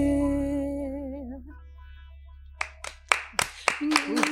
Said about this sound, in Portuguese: uma salva de palmas. Parabéns.